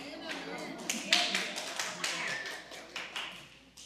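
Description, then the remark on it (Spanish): An audience applauds in a burst of scattered, overlapping claps that rise and then taper off, with faint murmuring voices underneath. “Y los que no aplaudieron no creyeron, ¿verdad?”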